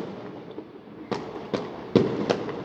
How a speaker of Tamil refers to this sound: பட்டாசு வெடிக்கிறவன் இன்னி வேற என்னைக்கும் வெடிக்க மாட்டான் இன்னைக்கு தான் வெடிப்பான்